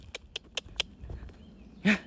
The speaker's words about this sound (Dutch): Mijn hond die eh, iets spannends ziet. Hé, hey, dat is een konijntje. Hier komen.